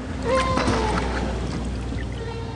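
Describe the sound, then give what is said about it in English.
Higher-pitched whale calls recorded in the 2000s: a couple of short, rising tonal moans drift over a steady low underwater rumble, fairly faint, with no one talking. “The whales were calling in a different pitch.”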